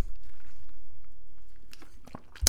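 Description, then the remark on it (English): Someone takes a swig of a Pepsi kept in the fridge with ice added on top: a low, steady rumble, then a few crisp crunchy clicks and gulping sounds near the end, with no talking. “as I take a swig of this for the working man”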